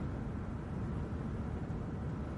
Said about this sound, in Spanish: Viajan en coche.